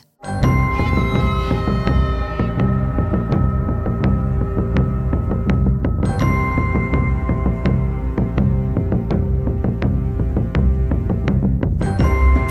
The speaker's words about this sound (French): Il commence donc avec le son mystérieux et envoûtant de la flûte à bec basse, pour ensuite ajouter le tambour résonnant comme un galop de cheval.